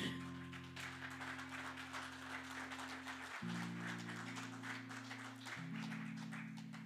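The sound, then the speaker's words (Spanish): A church audience claps to the Lord during a sermon, steadily and densely throughout, a continuous crackling patter, over sustained organ-like keyboard chords that shift twice. “Dale palmas al Señor.”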